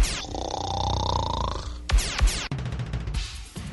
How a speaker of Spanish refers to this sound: Sus noches son solo para roncar.